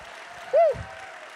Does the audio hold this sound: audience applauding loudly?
yes